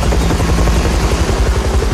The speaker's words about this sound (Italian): Senti che roba, eh? T'accompagno, senti sta roba elicottero,